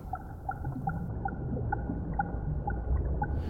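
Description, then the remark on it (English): A string of underwater bubbles recorded with a hydrophone on a weight resting on the seabed, about a dozen short, hollow ringing blips in an uneven rhythm over a low, steady rumble, with no voices. “Further up, a string of bubbles.”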